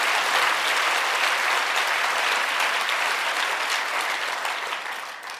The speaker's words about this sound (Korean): 영광의 박수를 돌리겠습니다. 아멘 할렐루야. 아멘 할렐루야.